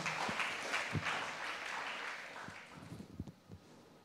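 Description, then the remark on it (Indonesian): A crowd breaks into sustained applause given for God, dense overlapping claps forming a broad wash of noise that gradually thins and fades, with a few scattered louder claps near the end. “Berikan tepuk tangan buat Tuhan kita yang luar biasa.”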